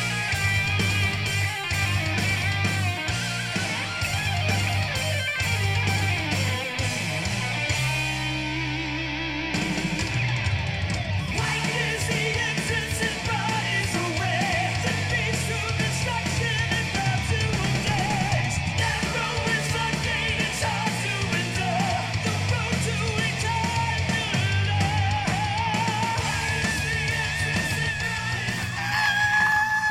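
A new heavy metal song by a Christian band from California plays loudly and continuously, with harsh screamed vocals over dense distorted guitars and pounding drums, briefly thinning out around nine seconds before crashing back in.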